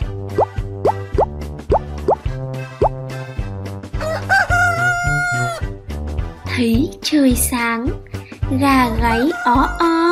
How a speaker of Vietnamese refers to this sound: trống thường gáy vào lúc nào nhỉ?